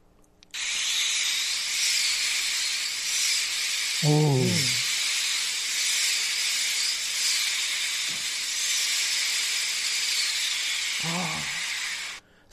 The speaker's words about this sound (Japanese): さらに強い風という感じですよね。